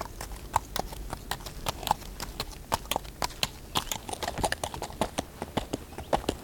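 Horse hooves clip-clop in a steady, brisk rhythm as a rider rides the saddled horse away, a long run of sharp knocks with no voices, the pace holding evenly as the animal moves along.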